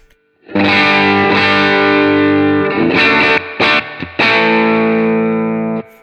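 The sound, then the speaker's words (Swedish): An electric guitar played through a transparent overdrive pedal with its mid control set slightly below centre, ringing sustained chords with a brief choppy break midway, lightly driven and warm rather than heavily distorted, loud and alone with no talking. “Alltså det låter ungefär likadant fast liten... Transparent overdrive.”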